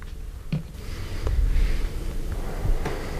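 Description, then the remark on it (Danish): Slow, deep breathing from a man lying relaxed on his back in a studio, a long airy exhale swelling and fading, with a couple of soft nasal sniffs and no talking. “Og han er afslappet og trækker vejret dybt”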